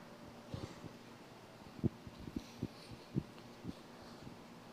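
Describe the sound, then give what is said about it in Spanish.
An air conditioner runs with a low, steady mechanical hum, broken by several soft knocks and clunks at irregular intervals. The sound is fairly quiet, and no one speaks. “Qué bonito se escuchan los sonidos del aire acondicionado.”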